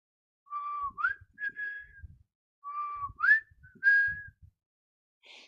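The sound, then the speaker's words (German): Someone whistles a short tune of sliding, rising notes, playing the same phrase twice with a brief pause between. The whistling is clear, with no talking. “Woher kam dieses Pfeifen?”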